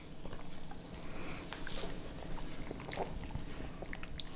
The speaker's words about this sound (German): Ähm, ich habe weiße Traube und bin schon sehr gespannt, ob die auch so super ist sprudelt schön, riecht gut.